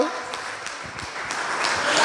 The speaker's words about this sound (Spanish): Dele mejor aplauso al Señor. Aleluya. Vamos a aplaudir al Señor.